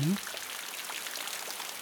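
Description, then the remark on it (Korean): Steady rain falls with a soft, even hiss and scattered droplet taps, after a brief murmur of a voice at the very start. “이렇게 비가 오는데 당장의 메뉴가 걱정이라니.”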